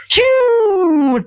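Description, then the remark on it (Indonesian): A voice imitates a spinning 'rat' (tikus) firecracker: a short hiss, then a steady whistling tone that slowly drops in pitch for about a second. Loud and alone. “kalau misalnya petasan gini loh, petasan korek kan kita tahu kalau petasan korek kan bunyinya kayak cedus, cetaser gitu, ya kecil, nah kalau kayak petasan kayak tikus yang kayak,”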